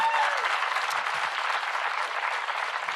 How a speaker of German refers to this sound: Habt ihr einen Applaus für alle Erstbesucher, die da sind? Und lass uns die mal ordentlich begrüßen.